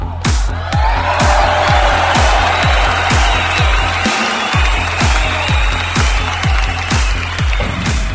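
A crowd applauds and cheers loudly and continuously for about eight seconds, the dense clapping running over a steady, regular thumping beat underneath.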